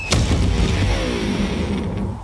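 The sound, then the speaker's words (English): An electric guitar hurled off a 20-story building crashes to the ground with one sharp, loud impact, then its strings ring on in a jangling, slowly fading drone for about two seconds, with no voices. “An electric guitar.”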